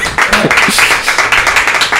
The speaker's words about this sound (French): Exact, en tout cas, on applaudit notre invité.